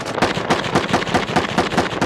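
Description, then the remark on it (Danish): Heavy, sustained gunfire as Peshmerga fighters frantically try to shoot down an Islamic State drone overhead: rapid overlapping cracks of shots firing in quick uneven bursts, loud and continuous for the whole couple of seconds, with no talking. “An IS drone was over our heads. The Peshmerga tried frantically to shoot it down.”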